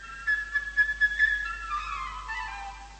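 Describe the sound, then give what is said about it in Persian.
A flute in an orchestra plays a bright, chirpy birdlike melody representing the little sparrow, Peter's friend, in a story about a boy named Peter and a wolf, with quick fluttering high notes followed by a smooth falling phrase. It's a clear solo line with no voices. “این صدا رو شنیدید صدای دوست پیتر گنجیش کوچولو بود ولی باید بدونید این صدای یک فلوت بود و از این به بعد همین فلوت نقش گنجیشکر رو بازی میکنه”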